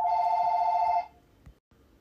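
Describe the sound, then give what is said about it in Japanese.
A telephone rings with an incoming call, one sustained, bright electronic tone lasting about a second, then cuts off, leaving quiet background noise and a faint knock. “そうなんか電話かかってきた”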